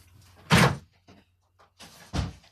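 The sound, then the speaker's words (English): A door that had been left open is shut with a solid thump, followed by some quieter handling and rattling, then a second firm closing thud about a second and a half later. No one speaks. “I just realised I have my window open. One second. I left the door open.”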